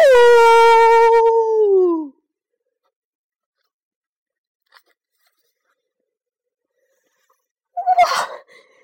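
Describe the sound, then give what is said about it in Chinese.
A young rooster, Pidik, raises its head toward the sky and crows once with all its strength, loud and drawn out for about two seconds, its strained pitch sliding downward at the end. Silence follows, then a brief crunching rustle near the close. “在一片寂静中，皮迪克用尽平生之力，昂首向天空发出一声鸣叫：“ 呜呜呜！”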